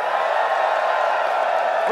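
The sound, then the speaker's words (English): A live audience at The WAN Show's live edition at LTX 2023 cheers and shouts together, a loud, dense, steady roar of many voices that holds for about two seconds without letting up. “Hey, guys, say hi to The WAN Show audience.”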